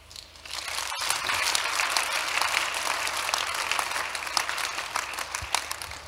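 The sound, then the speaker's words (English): A crowd bursts into sustained applause, many hands clapping in a dense, steady wash that stays loud for several seconds with no voices over it. “Somebody clap.”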